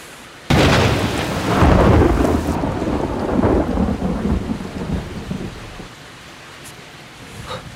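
A sudden, loud thunderclap from a lightning strike cracks open and rolls on in a long, rumbling decay outside a motel room, with steady rain hissing underneath throughout; no voices.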